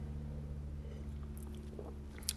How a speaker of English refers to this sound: And I'm sipping wine. I'm going to have another sip real quick.